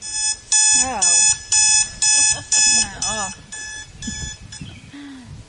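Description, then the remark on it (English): An alarm clock sound, played from a ten-hour video, rings in loud, evenly spaced electronic bursts, about six beeps in a steady rhythm, while a man talks over and after it. “But it is the sound of an alarm.”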